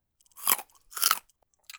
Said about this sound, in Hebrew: וגם אם אתם רוצים לדעת, מנשנש לפעמים קצת שיבולים, ואולי גם לועס קצת גרגירים. מכאן השם שלו.